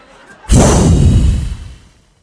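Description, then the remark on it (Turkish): A single loud, rumbling gust of breath blown straight into the microphone, lasting about a second with a booming low roar before fading out. No one speaks. “üfle … üfle”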